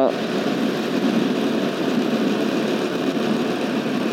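A motorcycle engine idles steadily, a continuous low, throbbing rumble with a fine rapid pulse that holds at an even loudness for the whole few seconds.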